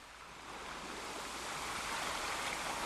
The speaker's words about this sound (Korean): 달빛에 반사돼 일렁이는 물결과 몽돌 해변의 파도 소리는 어쩐지 비현실적이었습니다.